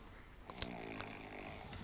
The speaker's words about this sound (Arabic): التشخير واصل يشخر واصل نايم